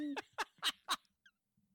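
A toy chicken being shaken squawks four times in quick succession, each shrill, raspy honk loud, followed by a faint little chirp and then near silence.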